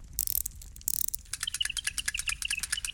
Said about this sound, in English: Charming little bird. However, did she make this little mechanism? Automata, I think it's called. Clever, isn't it?